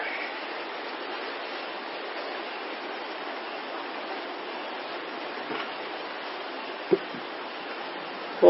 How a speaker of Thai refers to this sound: ฝนตกดีใช่ฮะไม่รั่วเหรอฮะรั่วบ่ตรงไหนรั่วไปนั่งใต้ตรงนั้นแหละ